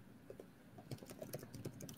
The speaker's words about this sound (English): And if you're listening um, and not watching yet, we're just we're they're typing all of our ideas down into this Google Doc